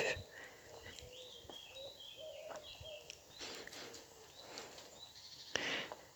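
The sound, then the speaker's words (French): A cuckoo calls a few times in soft, low two-note hoots amid a busy outdoor chorus of chirping and whistling songbirds, with no talking. “Le coucou.”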